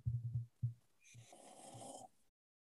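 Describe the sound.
Someone snores: a few short, low guttural snorts followed by one longer, rasping breath that swells with a hissy, rattling texture before cutting off.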